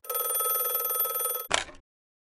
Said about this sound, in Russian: Утром 5 сентября 1982 года в доме семьи Гош стали раздаваться телефонные звонки.